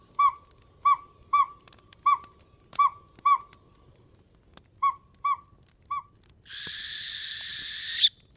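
An owl hoots about ten times in short, clipped calls with a brief pause partway through, followed by a loud, steady rushing noise lasting a couple of seconds.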